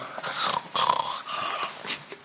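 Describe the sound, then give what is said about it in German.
A cat, roaming around the speaker's feet, vocalizes with a few breathy, rough growl-like bursts over about two seconds, with no one talking. “Diese Katzen, alle gleich.”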